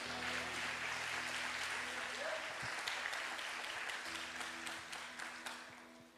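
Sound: audience applauding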